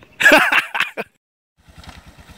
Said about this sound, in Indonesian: Jadi susahnya habis hujan ketika turun pakai sepeda motor ya kayak gini nih. Jalannya udah kayak gini. Kita harus mainkan kopling rem depan sama rem belakang itu stabil gitu ya.